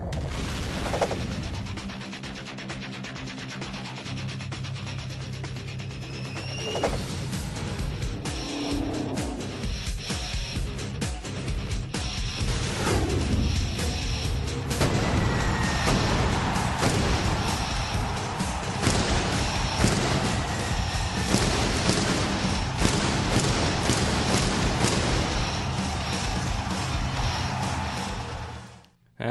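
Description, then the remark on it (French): Loud indoor pyrotechnic firecrackers burst in dense, rapid succession, booming and crackling over a constant roaring wash of noise that fills the whole stretch without letting up. “c'est-tu pas beau ça? Des beaux pétards à l'intérieur qu'on peut pas, euh, avec pas de la, nouvelle air hein, pour, respirer, juste de la fumée hein, yes, de pétard.”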